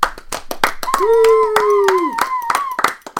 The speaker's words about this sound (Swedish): En applåd tack.